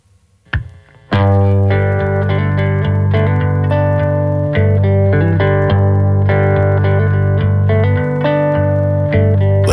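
After a brief quiet moment, a song kicks in at full volume: steady, sustained guitar-like chords with a processed, slightly distorted tone and rhythmic accents, playing on without any vocals yet.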